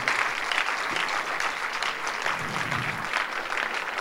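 A crowd claps steadily in dense, continuous applause, a bright crackling wash of many hands that holds at an even level for the whole stretch with no voices standing out.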